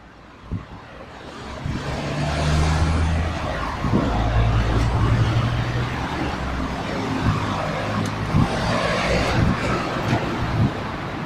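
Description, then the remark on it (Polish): A busy city soundscape: a steady, loud roar of road traffic and airplanes with deep engine drones and occasional clanks and knocks, continuous throughout with no voices. “Jest pełen dźwięków związanych z ruchem drogowym, budową, samolotami, hałasem pochodzącym też od innych ludzi.”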